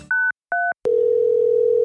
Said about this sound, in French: Je prends mon phone et compose le numéro d'Estelle.